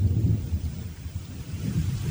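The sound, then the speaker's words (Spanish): A thunderstorm over open country: deep, rolling thunder rumbles low and steady beneath a continuous hiss of heavy rain, with no voices, filling the whole short stretch. “descampado sin más techo que una espantosa tormenta, el conde de Kent se encuentra con uno de los caballeros del séquito del rey.”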